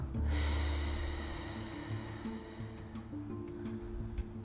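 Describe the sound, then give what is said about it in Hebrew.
A long, deep exhale of breathy, rushing air, strongest at the start and slowly fading over a few seconds, with no talking, the out-breath after a deep breath in through the nose down to the belly in a breathing exercise. “כמה שיותר עמוק לבטן, וננשוף החוצה”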